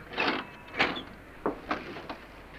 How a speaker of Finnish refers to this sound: Soitan ovikelloa.